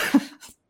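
A cat throws itself against a window pane: a short, dull knock with a low boom, followed by a fainter second bump, then quiet. No one speaks.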